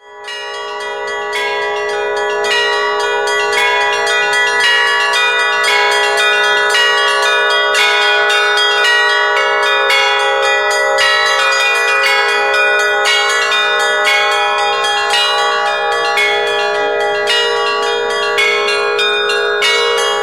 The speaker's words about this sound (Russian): 16 звонарей из Смоленска, Москвы и Витебска, две звонницы, колокольня Свято-Успенского собора и небольшая передвижная звонница из девяти колоколов. Больше часа над Соборной горой и окрестностями разносились мелодичные звуки.